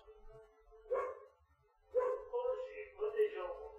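A dog barks in short bursts, about three distinct barks spaced roughly a second apart, moderately loud with a low background rumble between them.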